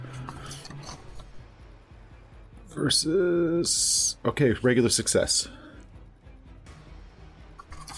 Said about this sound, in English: Uh, yeah, you can hear. Yeah, both of them do seem to be moving. You can hear the creaking uh, of the reeds uh, as they're moving round. Uh, they, they seem to be moving round in either side